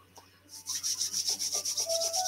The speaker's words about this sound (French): Vous frottez les paumes. Vous allez entendre du bruit. En fait, vous chassez l'air entre les paumes.